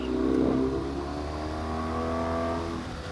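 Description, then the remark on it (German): A motorcycle fitted with Touratech upgrades revs up loudly, its pitch rising then holding steady in a sustained drone before easing off slightly near the end. “Es ist wirklich ein richtig cooles Motorrad.”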